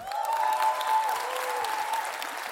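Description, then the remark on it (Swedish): A crowd of Christian Democrat party members applauds steadily with cheering voices mixed in as party leader Ebba Busch takes the stage in Örebro. A dense wash of clapping holds at an even, fairly loud level throughout, with a sustained tonal cheer rising above it. “När Ebba Busch ställer sig på scenen där i Örebro framför jublande kristdemokrater”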